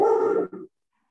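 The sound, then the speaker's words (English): A dog lets out a loud, drawn-out bark that breaks into a shorter second yelp, then silence follows. No one speaks. “I want to say, um, sorry, dog alert.”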